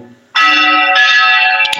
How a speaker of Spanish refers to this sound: escuchen, escuchen las campanas del monasterio